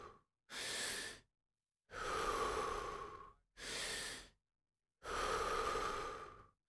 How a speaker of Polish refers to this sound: Jeszcze dziesięć. Postaraj się utrzymywać to samo tempo. Wdech do brzucha, potem klatka piersiowa i wydech, ale nie do samego końca.